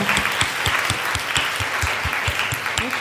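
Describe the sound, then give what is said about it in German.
An audience at an evening show claps steadily for a guest who has come, a dense wash of many hands with a few sharper individual claps standing out in a regular rhythm, sustained and fairly loud throughout. “Ein Applaus bitte, weil ich fand es so schön, dass er gekommen”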